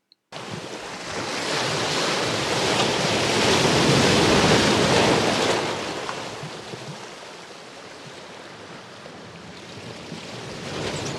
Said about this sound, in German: Und manchmal weht der Wind ein bisschen in das Mikrofon. Wenn ihr das jetzt hört, dann freut euch darüber. Das ist der Nordseewind, nach dem ihr euch so sehr sehnt.